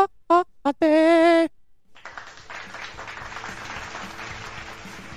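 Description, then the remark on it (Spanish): A few short, high, tonal vocal whoops, then after a brief pause a steady round of applause, many hands clapping in a dense, even patter that holds at moderate loudness to the end. “Es una manera de poder aplaudir.”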